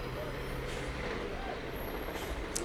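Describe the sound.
Steady low bus engine rumble fills a busy bus terminal where passengers have got off the now empty buses, with short bursts of bus air-brake hiss near the end and faint background voices.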